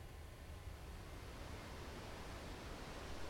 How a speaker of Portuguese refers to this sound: Agora nesse lugar que você está na ponta da praia, já indo no sentido ali Guarujá, esse local é bandeira vermelha, por isso só os surfistas estão aí, né? Porque esse mar está bem agitado.